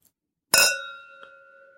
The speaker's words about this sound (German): Und wir stoßen mal an auf äh, oh, die Champions League.